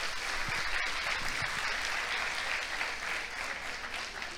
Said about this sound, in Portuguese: Tem para aplaudir o Alcemar aqui, gente.